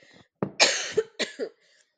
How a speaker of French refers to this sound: pardon, je vais tousser,